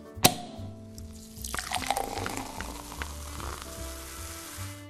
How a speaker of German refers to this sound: Also ich finde, wir sollten auf das neue Jahr anstoßen. Ich mache schon mal den Sekt auf.